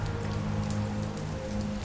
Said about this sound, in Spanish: sin reparar en la tormenta que crepitaba a su alrededor